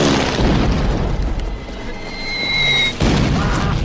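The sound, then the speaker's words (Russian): A loud bomb from a German air strike explodes in a soldiers' trench, a deep rumbling blast that slowly decays and knocks down several soldiers, then a second heavy blast bursts in near the end. No voices are heard. “Одна из бомб взрывается в окопе, несколько солдат падает.”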